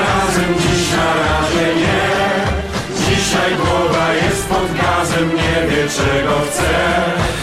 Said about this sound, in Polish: To, co słyszymy, to jedna z jego piosenek z serialu biograficznego Bodo w roku